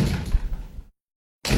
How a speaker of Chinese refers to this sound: 我没动，装作还在睡的样子。但是我睁大了眼睛，看着我们的生物老师一次次抡起椅子砸向铁门。